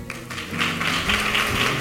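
An audience applauds steadily after a show at the López de Vega, a dense wash of many hands clapping at once that stays at an even, fairly loud level for the whole stretch, with no voices on top.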